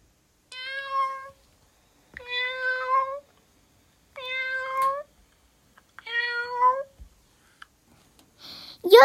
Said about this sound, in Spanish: Yo todas las mañanas escucho a mis gatos cuando tienen hambre.